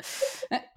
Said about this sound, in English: oh bless you.